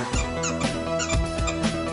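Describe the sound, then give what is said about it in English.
A squeaky rubber duck toy is squeezed repeatedly in quick, uneven bursts, its high-pitched squeals fairly loud, with no talking. “Your, your dick's making squeak noises. Nice, yeah a rubber ducky.”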